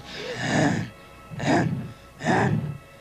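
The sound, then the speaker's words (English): A man imitates a lawnmower with his voice, though it comes out as three loud, raspy, heavy breaths, evenly spaced, with short pauses between them. “And of course, his proclivity when he is sexually aroused is to make lawnmower noises, which sound nothing like a lawnmower at all. It just sounds like he has heavy, bre- he has like sleep apnea on?”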